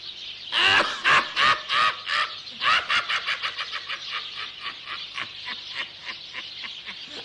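A rapid series of high, chirpy peeps from young chicks, starting loud and spaced, then quickening into a steady, slightly softer run of calls with no talking.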